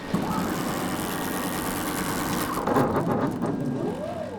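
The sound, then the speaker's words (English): A large StructureBot prototype 3D construction printer's 16 by 16 foot gantry moves back and forth in a four-car garage with a steady mechanical drone and rumble, joined near the end by a motor whine that rises and shifts in pitch as it moves. “That back and forth motion is what the printer does.”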